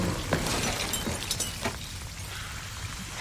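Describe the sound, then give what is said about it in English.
A glass canister full of green goo shatters in a burst of sharp, bright crashes, followed by scattered tinkling fragments over the next second or so, then a low, steady rumble with no voices. “right after they get out, that canister starts to give way. It shatters, the green goo goes everywhere, and the door slams shut.”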